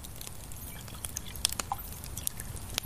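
Still water being poured into a glass as in-between water during a tasting: a soft, steady trickling hiss with scattered small splashes and clicks, fairly quiet, with no one talking.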